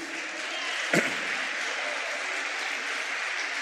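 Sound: audience applauding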